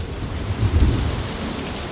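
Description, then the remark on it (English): Heavy rain pours down in a dense, steady hiss, swelling into a louder, rumbling surge midway before settling back to a constant downpour, with no voices. “when the rain does fall, and there's still plenty of rain, no one will be surprised to hear, it falls in much more intense bursts.”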